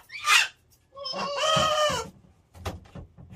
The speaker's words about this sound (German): Die Papageien haben bei anderen Tieren also durchgeklingelt, sie haben sich angekrächzt, gemeinsam gesungen